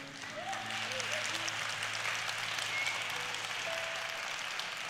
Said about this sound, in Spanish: Deberían de estar aplaudiendo todos con eso, nunca lo digo.